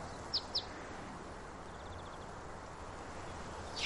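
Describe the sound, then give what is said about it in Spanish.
A greenfinch sings in an olive grove: two sharp, high chirps, then a faint rapid trill, and a brighter burst of notes at the end, all over a steady soft background hiss. “¿Es el que canta? ¿Es un ruiseñor? No, no es un ruiseñor, es un verdún.”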